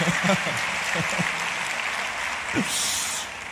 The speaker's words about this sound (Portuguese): Aplaude Jesus aí para quebrar o gelo, pô. Aí, recebe Jesus. Aleluia.